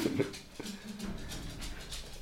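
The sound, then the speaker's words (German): A dachshund's paws patter across a hard floor, a series of light, irregular clicking taps as it moves back and forth, in and out. “Also das Getippel, falls ihr das schon gehört, ja, das ist unser Kampfhund.”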